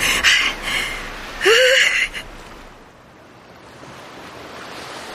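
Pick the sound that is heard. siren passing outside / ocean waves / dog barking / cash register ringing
ocean waves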